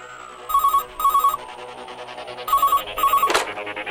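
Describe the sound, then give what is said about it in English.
A telephone rings twice for an incoming call from a caller in the classic double-burst pattern, a bright electronic trill, followed by a sharp click as the ringing stops. “We've got a caller, so tell me, what's on your mind?”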